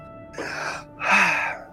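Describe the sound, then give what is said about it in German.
A voice acts out two exaggerated, wailing sobs as a character, beside himself, throws himself onto a table and begins to weep bitterly; the second sob is louder and longer, breathy and theatrical, with no talking. “Und Pierre Sylvain, ganz außer sich, wirft sich auf den, auf den Tisch äh, und beginnt bitterlich zu weinen.”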